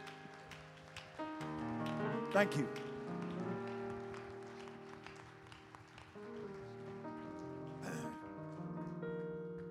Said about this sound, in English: And I want to thank the musicians, the singers, the choir director. Let's clap our hands. Let's recognize excellence.